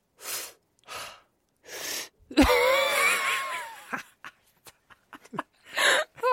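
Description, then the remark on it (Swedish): A person breathing in deeply through the belly so the belly pushes out: audible breaths drawn in a few times, then a long, loud, strained inhale with a raspy, wheezing edge, followed by softer scattered breathing sounds. “Eh, när man andas in så känner man på magen att magen åker ut. Testa att ta ett andetag och så känn.”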